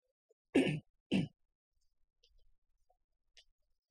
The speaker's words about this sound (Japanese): ちょっとあの、咳払い失礼します。